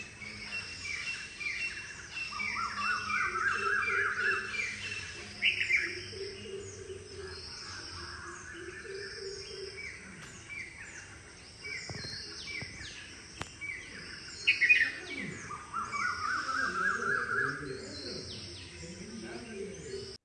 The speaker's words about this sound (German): Die Zikaden haben sowieso immer gezirpt die ganze Zeit. Ähm, aber dann wenn die, die anderen Tiere, dann die Vögel